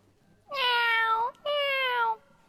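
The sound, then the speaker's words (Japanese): A person imitates a pet cat greeting its owner at the front door, giving two drawn-out meows in a row with a short pause between them, clear against a quiet background. “先ほどからね、ちゃんと練習に勤しんでた猫のモノマネがね、バッチリです”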